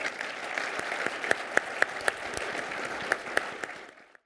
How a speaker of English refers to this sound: I just wanted to offer a, uh, a round of applause um, and hope you will join me in thanking our panelists today.